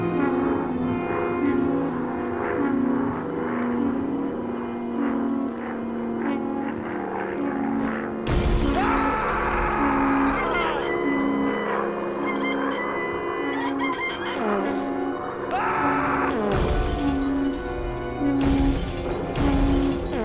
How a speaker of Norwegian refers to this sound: Så jeg har lagd en rekonstruksjon av den kvelden i april-mai, eller når det var. Wow. Da Molde ble bomba, og det er en slags lydkunstrekonstruksjon.